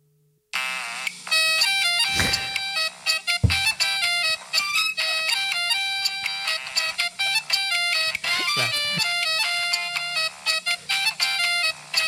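A bright, melodic phone ringtone, the same tone that sounds when a countdown finishes, plays continuously for about twelve seconds, a rapid pattern of chiming electronic notes, fairly loud, with a few brief thumps underneath and no talking.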